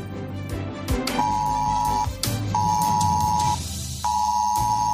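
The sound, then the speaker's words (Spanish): A mobile phone emergency alert sounds on many residents' phones in Cabanillas del Campo, Spain, at half past twelve, in three sustained, piercing beeps of about a second each, separated by short gaps, over a dense, noisy background. No one speaks. “Bueno, pues eran las doce y media de la mañana cuando empezó a sonar este pitido a muchos de los habitantes de esa zona de Cabanillas del Campo.”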